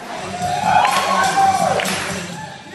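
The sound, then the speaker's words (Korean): An audience cheers and whoops loudly over a steady wash of crowd noise and applause, with high shouted voices rising and falling throughout the short burst, after young Iraqi dancers perform a passionate, free hip-hop dance. “하지만 이라크 청년들은 이런 환경에서 힙합을 배웠다고는 생각도 할 수 없을 만큼 열정적이고 자유로운 춤을 선보이며 큰 박수를 이끌어냅니다.”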